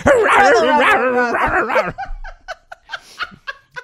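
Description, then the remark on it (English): A person loudly imitates a warbling, bellowing creature call for about two seconds, then breaks into short, choppy bursts of laughter. “Listen, to my tauntaun call.”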